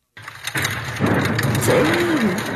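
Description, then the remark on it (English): A deep, rolling rumble of thunder snow during a snow squall, recorded at a home in Ogden around 2 a.m., swells in and holds steady, broad and crackling, continuing to the end. “sound of thunder snow from the home of KSL viewer listener”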